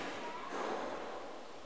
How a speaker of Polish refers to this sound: Teraz ustawiłem, proszę Państwa, na 300 Hz i akurat zaczął wiać lekki wiatr.